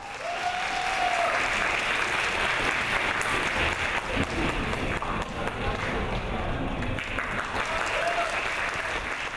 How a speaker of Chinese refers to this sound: 让我们用热烈的掌声欢迎孔祥东先生。